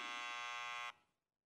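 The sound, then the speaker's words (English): A harsh, steady electronic buzzer blares for just under a second at full loudness, its dense stack of bright harmonics cutting off abruptly, leaving only a short fading tail. “That Donald Trump, well, you, you got buzzed before you even said Trump because I knew what you were thinking.”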